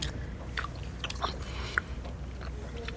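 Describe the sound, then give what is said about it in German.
Wet mouth noises of a piece of chewing gum being bitten and chewed, with soft irregular smacks and a sharper click partway through, no talking. “Lutschen, bis das Süde weg ist. Und dann einfach nur kauen.”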